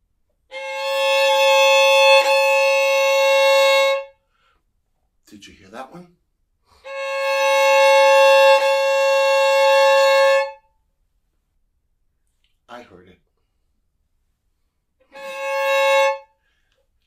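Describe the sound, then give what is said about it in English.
A bowed violin double stop, C sharp with A, played three times as steady, bright, buzzy held chords. The first two last several seconds and the last is shorter, with brief quiet noises in between. “What about a C sharp and an A?”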